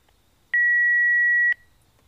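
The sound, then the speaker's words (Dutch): A single steady electronic voicemail beep, a clean high tone held for about one second before cutting off abruptly, with only faint background hiss around it and no talking. “Spreek iets in na de piep.”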